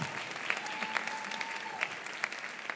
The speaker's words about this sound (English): A round of applause for Danny.